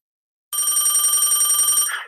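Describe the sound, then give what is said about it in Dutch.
A telephone bell rings loudly and continuously for about a second and a half, a bright rapid metallic trill with no voices, cutting off abruptly at the end, before a phone call to Koen de Kort. “ja, vorige week belde ik even met Koen de Kort.”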